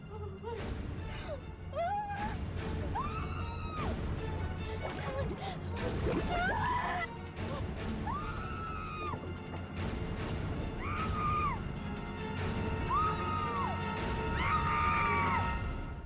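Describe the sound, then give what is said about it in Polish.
A chaotic Loch Ness monster attack as portrayed in the American TV series Grimm: repeated rising-and-falling screams over constant heavy splashing, thuds and crashing, loud and dense throughout with no pause. “Istnieje na przykład amerykański serial Grimm, e, gdzie możemy tak e, zobaczyć, usłyszeć, m, mm, jak brzmiał atak potwora z Loch Ness.”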